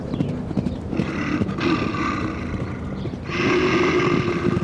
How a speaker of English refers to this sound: Hearing the sound of the charging boar, Arjuna woke up from his meditation.